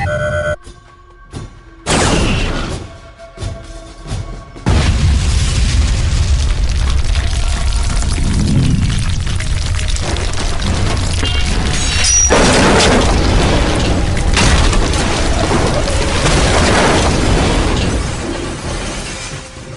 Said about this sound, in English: Just as Lorok had predicted, the photon torpedo caused a landslide. The debris of the peak came crashing down, smashing two of the Valandrian aircraft and causing another to veer into the cliffside.